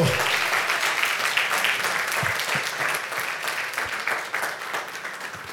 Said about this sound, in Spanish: Vamos a colocarnos en pie y dele fuerte ese aplauso al Señor. Fuerte ese aplauso. Fuerte ese aplauso.